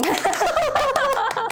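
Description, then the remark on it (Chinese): A short burst of hand clapping, several sharp, uneven claps mixed in with a steady voiced, laugh-like sound underneath, fairly loud throughout. “你这么一鼓掌，搞得我突然也很受宠若惊。”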